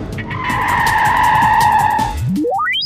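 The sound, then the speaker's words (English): A driverless, remote-controlled car's tires squeal in a long, loud skid, then the engine roars and climbs sharply in pitch as the car speeds away, with no voices. “Look, Michał, there's no driver in that car.”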